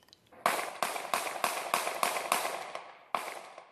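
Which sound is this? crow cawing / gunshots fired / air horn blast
gunshots fired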